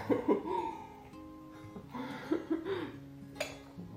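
Tableware and cutlery clink lightly at a breakfast table, with one sharper clink near the end, mixed in with laughter and casual voices.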